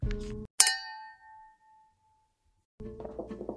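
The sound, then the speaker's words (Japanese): A single bright clink of drink containers, one holding cola and one holding amazake, tapped together in a toast, clear, its metallic ring fading over about a second between stretches of muffled handling noise. “はいじゃあよろしくお願いはしい、よろしくお願いします。乾杯乾杯。”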